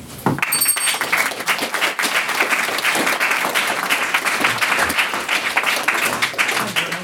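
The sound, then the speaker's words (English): An audience at a debate applauds the evening's maiden speaker steadily for several seconds, a dense, even patter of many hands clapping at a fairly loud, sustained level with no voices over it. “Uh, can I get another round of applause for our, our maiden speaker this evening?”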